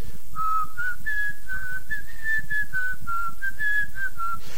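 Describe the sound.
A person whistles a short, wavering melody imitating a middle-schooler's daily clarinet practice, the notes rising and falling steadily for several seconds, fairly loud with no talking.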